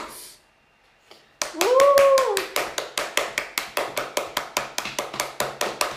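Steady rhythmic clapping starts after a quiet moment and continues at an even pace, with sharp, loud claps. A short rising-and-falling vocal whoop rings out at the start.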